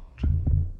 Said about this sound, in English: This is the sound of a normal heart.